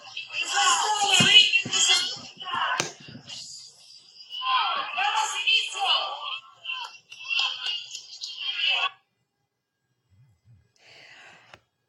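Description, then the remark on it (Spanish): A group shouts a loud war cry, voices bursting out in several rhythmic rounds for about nine seconds before cutting off into near silence. “Se enchina, se enchina la piel, se enchina la piel con ese grito de guerra, oye.”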